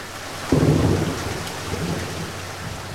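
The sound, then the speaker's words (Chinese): Heavy rain pours steadily as a dense, hissing wash across the whole clip, with a low thunder rumble rolling in about halfway through the first second and slowly fading. “等到三个人返家的时候，天上下起了大雨。”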